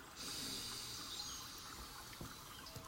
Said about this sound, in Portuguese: Você deve ter reparado quanto eu respiro. Sim, eu respiro fazendo barulho para que você ouça, para que você aprenda, porque respirar é fundamental.